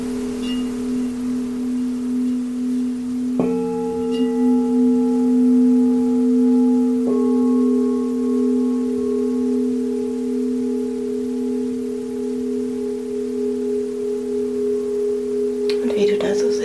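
Sustained singing bowl tones ring steadily during a guided singing bowl meditation, with a second and third bowl struck a few seconds apart adding layered, shimmering overtones above a low hum, before a soft rustle at the end.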